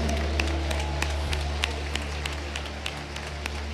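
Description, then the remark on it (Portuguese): An audience applauding the Lord during worship with loose, uneven claps, individual sharp hand claps standing out irregularly over a steady low electrical hum, no voices. “Aplauda o Senhor bem forte.”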